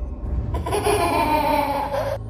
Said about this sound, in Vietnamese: Khi không còn nhìn thấy gì Bên tai của dì Phượng có tiếng cười lanh lành của trẻ con vang lên một cách lạnh lẽo